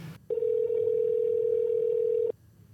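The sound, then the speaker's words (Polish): A single steady telephone ringing tone while placing a call to Copenhagen, a clean mid-pitched beep lasting about two seconds, heard clearly on its own with no talking. “Okej, okay, to co, mamy Berlin, mamy Boston dzwonimy i do zadzwonimy. Kopenhagi.”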